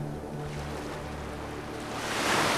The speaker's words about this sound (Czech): Dva a půl kilometru tam, dva a půl kilometru zpátky, jen šumění moře a mladý pán, kterého uspává.